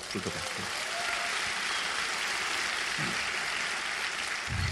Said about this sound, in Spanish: ¿cuánta gente nueva hay acá? Nueva, que por primera vez. Ah, un fuerte aplauso para vosotros.